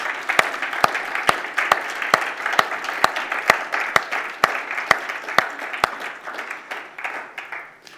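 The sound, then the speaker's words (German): A group applauds the many volunteers who help with the technology, the kids and the worship music. A dense wash of many hands clapping, with a few sharp, regular claps standing out, holds strong before gradually thinning and fading toward the end. “Und ich denke, wir könnten auch da einfach mal einen Applaus machen für all die vielen Leute, die einfach da, da möglich machen.”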